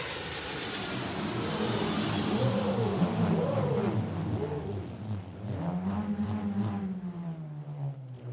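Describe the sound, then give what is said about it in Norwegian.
An airplane at Kjevik airport roars overhead, a loud, steady rumble with wavering engine tones that sweep and then slide lower in pitch as it passes, with no voices. “Ja da, og det opplever man jo her hvert eneste sekund når man hører flyene på Kjevik og, og, og sparker i jorda og tenker på steinalderen.”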